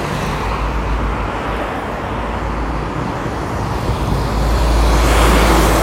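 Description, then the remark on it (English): A motorcycle engine drones steadily, a dense rumbling roar that swells slightly louder toward the end as it passes, with no voices. “because of the background sounds, um, that motorcycle there, with, even with me like heavy breathing all the time, um, it doesn't sound as good as I want to, or sound as good as it should in my head.”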